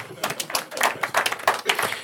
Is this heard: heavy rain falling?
no